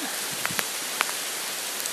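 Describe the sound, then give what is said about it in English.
Steady rain falls outdoors as a dense, even hiss, with a few sharper drops pattering on a surface. No one speaks. “Being out in the rain when you haven't got to do nothing.”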